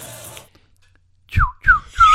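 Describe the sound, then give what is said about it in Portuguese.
A person whistles a short personal signature call used to identify themselves: three quick, sliding notes that swoop downward, fairly loud, following a brief noisy bit and a pause of near silence. “você já reparou que quem sabe assoviar normalmente é um cara mais malandro?”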